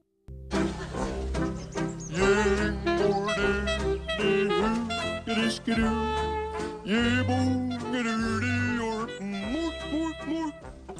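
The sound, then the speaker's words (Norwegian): A song plays at a steady, fairly loud level after a brief moment of silence, with a melodic vocal-like line over a full backing and a strong, continuous bass. “Men først så skal du få en låt som heter '…' av ….”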